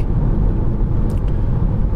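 Steady, loud low rumble of a Renault car driving on a road, heard from inside the cabin, with constant engine and tyre noise and no voices throughout.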